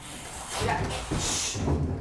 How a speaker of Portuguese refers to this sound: Ah, mas faz um favor, fecha a porta aqui pra mim, fecha essa, essa porta aí.